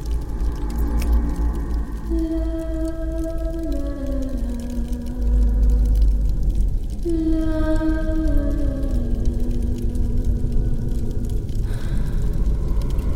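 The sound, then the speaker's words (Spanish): Someone sings far off, two long wordless phrases with slow sliding notes, faint and echoing over a steady low rumble. “Mientras intentas ordenar tus pensamientos, empiezas a oír a alguien cantando a lo lejos.”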